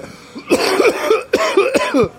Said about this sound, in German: Und sagte meine Mutter, willst du mit dem Husten wirklich ins Kino? Und ich habe ich habe alle zehn Minuten so ein Ding losgelassen.